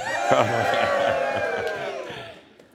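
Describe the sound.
A large stadium crowd at a football game roars and cheers wildly after a team recovers a fumble, a dense wall of yelling voices that stays loud throughout before easing off slightly at the end.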